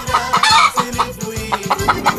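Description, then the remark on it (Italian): A hen clucks loudly, a quick run of short, choppy clucks in an uneven rhythm, with no one talking. “La nostra gallina sculacciata.”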